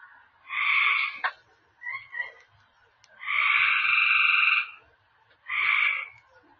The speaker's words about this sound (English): yeah, these are the frogs. Three frogs singing at night.